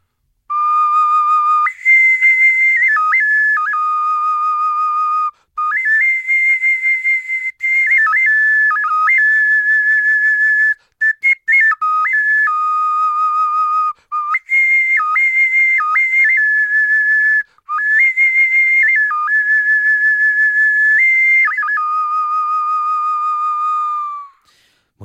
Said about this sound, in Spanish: Pues nos vamos con el sonido de... Un silbato zoomorfo cerámico.